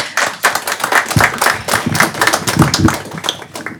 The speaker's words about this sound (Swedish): Välkomna upp på scenen båda två. Tack. En applåd, tack.